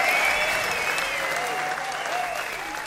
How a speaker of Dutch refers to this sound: Ja, het applaus verstomt